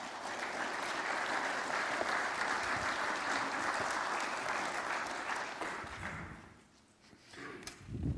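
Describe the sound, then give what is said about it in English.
Sustained applause from an audience at Faith Covenant Church, a dense wash of clapping lasting several seconds before tapering off, with a few scattered claps picking up again at the end, welcoming two men invited up to the front. “Give them both a big round of applause.”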